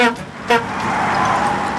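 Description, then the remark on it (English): Two quick, bright honks of the horn of Bertie the bus as a gingerbread train dashes onto the road in front of him, the first at the start and a second a moment later, followed by a steady rushing wash of noise. “Beep beep went Bertie's horn.”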